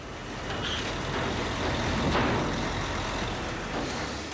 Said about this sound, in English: Uh, it was a real cabin. There wasn't. A, it was not a set. And the, and the truck is really moving.